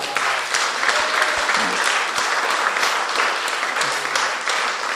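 A church audience applauds in thanks to God, a dense wash of many hands clapping steadily throughout at an even, sustained loudness with no talking over it.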